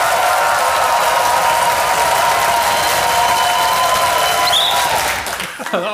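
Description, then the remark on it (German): A studio audience applauds loudly and steadily, a dense wash of many hands clapping at once, with a brief whistle near the end before the clapping quickly fades out, welcoming a guest onto a German TV show. “Vielen Dank auch für den Applaus.”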